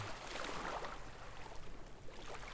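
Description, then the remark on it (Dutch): Soft, steady wash of water with a low rumble underneath, gentle swells rising and falling slightly, like calm sea lapping with faint wind; no voices. “Hoor hoe het water kalm en traag kabbelt.”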